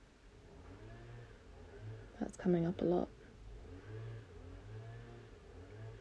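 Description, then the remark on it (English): A lawnmower engine drones steadily in the background with a rhythmic, slightly pulsing hum, while a person speaks briefly over it partway through. “You can probably now hear the lawnmower this Aquarius transmission has been quite interrupted, funnily enough.”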